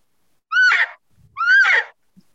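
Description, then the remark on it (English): Two loud, raspy rollover yelps from a turkey mouth call, made by dropping the jaw while pushing on the far right, open side of the call; each note breaks from a high clear tone into a lower rough one, separated by a brief pause, with no talking. “That's where you can get a rollover Yelp by dropping your jaw.”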